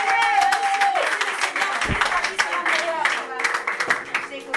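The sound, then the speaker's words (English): An audience claps steadily for Jesus Christ for several seconds, a dense, continuous patter of many hands, with raised voices rising above the applause. “Oh, if you are clapping, do it better for Jesus Christ.”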